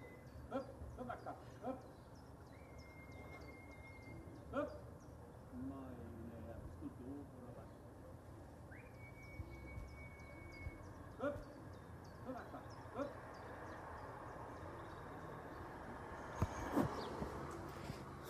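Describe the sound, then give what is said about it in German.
A neighbouring pigeon breeder gives two long, steady whistles to call his pigeons together, as he has done for half an hour. Outdoor background noise runs throughout, with scattered clicks and knocks and a brief clatter near the end. “So klingt das, wenn unser Nachbar, seines Zeichens Taubenzüchter, seine Luftratten zusammenpfeifen will.”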